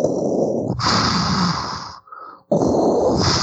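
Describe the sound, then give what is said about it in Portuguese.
A voice imitates heavy, mechanical mask breathing: a long rasping inhale, a brief pause, then a loud hissing exhale, with no words spoken. “você acabou de entrar na nave, abriu uma porta na sua frente ali, e tem uma sombra na frente nessa porta, escura, você escuta a respiração.”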